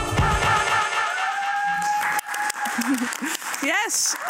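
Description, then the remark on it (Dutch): An audience of the show Late Night Talks applauds in a dense wash of clapping that fades after a couple of seconds, as voices begin talking over the dwindling noise. “Fuck applaus”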